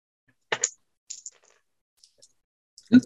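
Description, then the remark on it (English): Dice thrown for a luck roll clatter across a hard tabletop in a few quick bursts of sharp clicks and rattles, settling with small taps, then a louder thud near the end, fairly quiet. “and uh, do a luck roll.”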